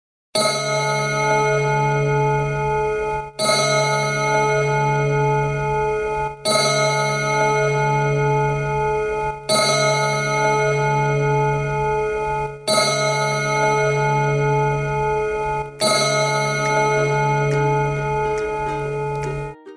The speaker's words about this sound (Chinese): 是钟声吗？听起来还敲了六下。 这是雪原城堡里面历史悠久的古老大钟，每到整点就会报时。一点钟敲一下，六点钟就敲六下，十二点就敲十二下。